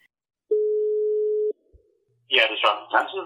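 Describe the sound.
A steady telephone line tone holds for about a second, cuts off with a click, then after a short pause a voice starts talking over a slightly crackly phone connection from Copenhagen.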